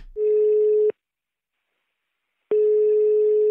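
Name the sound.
telephone ringing tone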